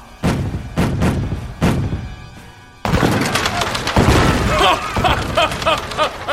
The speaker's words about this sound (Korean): 함포를 발사하라!